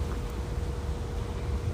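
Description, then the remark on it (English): Steady wind rumbles against the microphone outdoors, a low, continuous buffeting roar with no voices, filling the whole moment at moderate loudness. “It's windy.”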